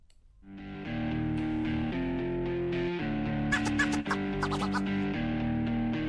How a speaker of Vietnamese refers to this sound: Còn bây giờ thì xin mời quý vị chúng ta hãy cùng uh, thư giãn với một giai điệu âm nhạc trước khi đến với những chuyên mục tiếp theo của chương trình.